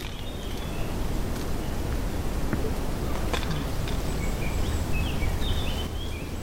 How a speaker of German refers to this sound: Hier ist der immergrüne Eichenwald. Manche Bäume sind über 200 Jahre alt. Es ist eine Art Waldlehrpfad. Hier kommen vor allem Blaumeisen vor. Wir hören sie nicht, dafür den Wind und eine besondere Stille.